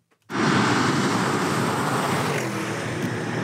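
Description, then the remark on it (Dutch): A Porsche Cayenne Turbo's engine cuts in abruptly and holds a steady, broad roar, fairly loud, as the SUV drives up, with no one speaking. “Oh, ze komen net voorrijden, hoor ik.”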